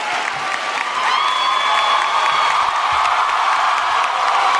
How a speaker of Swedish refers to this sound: Då blir det orkanjubel. Alla ställer sig upp.